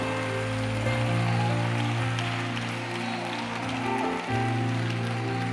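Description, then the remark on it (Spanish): Steady audience applause, a dense, continuous patter of clapping that holds for the whole stretch, laid over sustained low musical tones droning underneath. “Ese aplauso me lo está mandando.”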